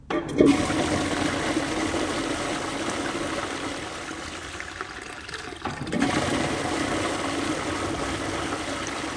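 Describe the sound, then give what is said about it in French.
A child flushes a toilet with a loud rushing gush of water that churns steadily for several seconds, briefly dips, then surges again into a continuing rush and trickle, with no voices. “Une seconde, je vais aux toilettes.”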